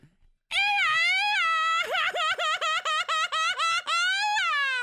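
A single loud, high-pitched Mexican grito by one voice in Puerto Vallarta: a long sustained cry that breaks into a rapid, rhythmic warbling trill midway, then settles back into a held wail before stopping.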